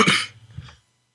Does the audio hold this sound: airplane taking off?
no